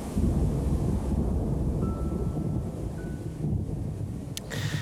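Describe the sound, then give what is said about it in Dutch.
A deep, continuous rumble of thunder rolls on loudly for several seconds, with a wind-like roar and no voices. A brief sharp crackle sounds near the end. “Eigenlijk is de aardbeving op aarde hetzelfde als de donder in een wolk.”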